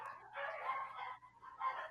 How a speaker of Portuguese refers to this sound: vamos esperar a sinfonia dos cachorros ali